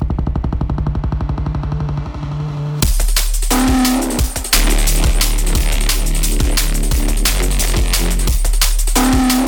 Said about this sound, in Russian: вот эти как раз таки порванные басы, которые практически звучат как будто перегруз, дисторшн. Ну и вот эти вот горны.